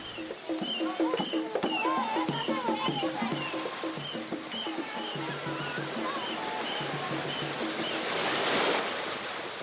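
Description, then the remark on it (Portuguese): Steady Indian Ocean surf washes over Chocasmar beach in Mossoril district, Nampula province, Mozambique, with a louder wave surging and breaking near the end, while indistinct voices carry over the continuous rush of water. “É uma praia situada no distrito de Mossoril, na província de Nampula, em Moçambique, um lugar banhado pelo Oceano Índico com cerca de 21 mil habitantes.”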